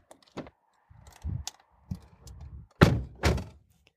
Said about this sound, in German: So, Türen sind zu, wir sitzen im Auto.